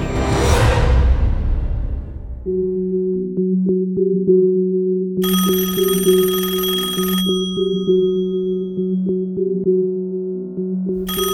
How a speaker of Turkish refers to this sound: Gecenin üçünde telefonun sesiyle uyanıyorum. Uykum pek hafif sayılmaz. Epeydir çalıyor olmalı.